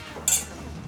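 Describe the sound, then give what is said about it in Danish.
A single bright clink of glasses touching in a toast to a new book at a private book reception held at someone's home, short and ringing, against a quiet background hum with no one talking. “Jamen, øh, skål ja, for ja. bogen.”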